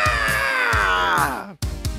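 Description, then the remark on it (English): Voices let out a loud, sustained Godzilla screech together on the count of three, the shrill pitch sliding downward before cutting off, with rhythmic low thumps pulsing underneath. “I think it's only fitting that we do a Godzilla screech on the count of three to pay homage to our alien friends.”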